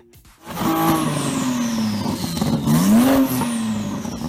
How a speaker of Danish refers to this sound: Jamen, det der, det er en, det er en Porsche, men det er en turbo, et eller andet voldsomt uh, dragster-bil, tror jeg.